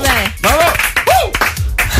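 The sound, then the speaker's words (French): A short burst of lively clapping from several people in a radio studio on Énergie's morning show Manu dans le 6-10 at 9:10, loud and continuous, with voices calling out and whooping over the applause throughout. “et excusez-moi, ça s'applaudit, il est 9h10.”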